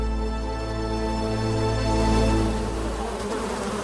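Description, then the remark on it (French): A mosquito buzzes steadily for a few seconds, a continuous droning whine with no pauses and no voices. “D'accord, mais alors pourquoi les maringouins femelles vous piquent vous, et pas votre ami”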